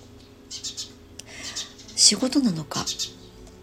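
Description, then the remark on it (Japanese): Birds chirp and call outdoors, heard through an open window, with short, bright bursts that stand out briefly above a person talking. The rain has just stopped after a morning of strong wind and rain. “で今は鳥の声がよくお届けできているかもしれないですあ鳥の声がね苦手だっていう方がいらっしゃったらね申し訳ないですけども大体収録をするときは窓を開けて収録していることがほとんどです。”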